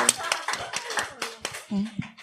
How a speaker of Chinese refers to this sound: 为什么拍手？我可以问一下吗？ 说拍手我们就盲从。 对， 哦， 他说拍手把荣耀归给神。